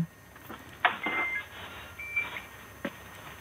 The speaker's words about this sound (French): vous faites cuire des pâtes oui, en fait, ça y est. Ah, vous avez un minuteur